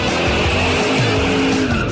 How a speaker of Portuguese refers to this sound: Olha, aí vem nos motores acelerados.